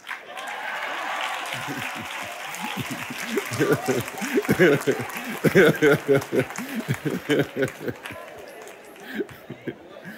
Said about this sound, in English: and look at y'all clapping him on. Because we, the people, need some answers.